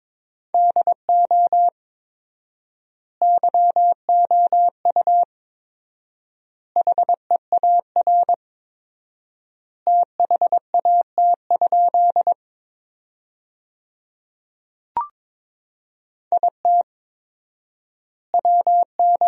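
Morse code sent at 22 words per minute with 4x word spacing, forming sentences from the top 300 words, as a steady, clear, mid-pitched tone, bursts of dots and dashes forming words separated by long pauses, with one brief click partway through and no voices.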